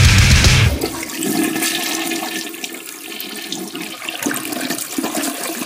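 A toilet flushes with a loud initial whoosh of rushing water, then settles into a steady swirling drain and refill hiss that runs to the end, with no voices.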